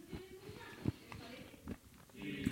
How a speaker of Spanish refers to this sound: A ver cómo se oye mientras me como una galleta.